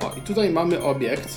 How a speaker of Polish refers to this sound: O, to był dźwięk, który znaczy, że możemy wejść w interakcję z tym... z tym przedmiotem.